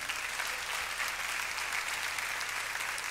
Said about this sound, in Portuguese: Dá um glória a Deus, dá um grito de alegria, querido. Pode aplaudir o Senhor por essa palavra.